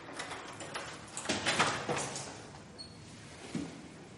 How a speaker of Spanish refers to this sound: La clienta abre la puerta de enfrente.